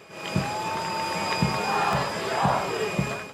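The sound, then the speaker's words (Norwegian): A large crowd of Croatian supporters roars and cheers continuously as the Croatian national team steps off the plane home in Zagreb after the World Cup final, with rhythmic low thumps like chanting or clapping beats about once per second beneath the dense wash of voices. “Det er nemlig lyden av det kroatiske landslaget som stiger ut av flyet som tok dem hjem til hovedstaden Zagreb.”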